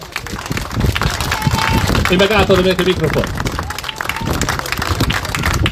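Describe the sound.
An audience claps steadily throughout, a dense, even patter of many hands at a fairly loud level, while a man speaks briefly over the applause.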